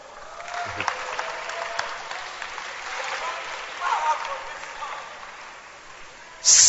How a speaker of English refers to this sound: Clap your hands for her.